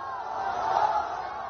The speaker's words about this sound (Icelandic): Hér heyrum við fagnadarlætin þegar lítill drengur náðust loksins undan þakki hús sem hafði hrunið.